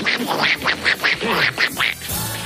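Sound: duck quacking imitation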